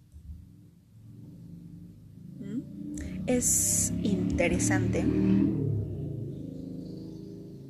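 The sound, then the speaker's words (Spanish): Traffic noise swells outside as a car or two passes, a broad low rumble with a hissing rush that builds for several seconds, while a person speaks briefly over it. “Perdonen el ruido, pero hay carros.”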